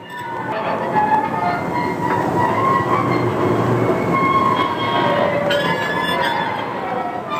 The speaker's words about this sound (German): Also ja, schlechtes, schle äh, schlecht geöltes Metall auf Metall. Mhm. Und das hat ein äh, Quietschgeräusch hervorgebracht, was die Völklinger lange äh, äh, ja, rund um die Uhr, Tag und Nacht begleitet hat.